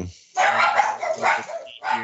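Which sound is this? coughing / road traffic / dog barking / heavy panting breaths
dog barking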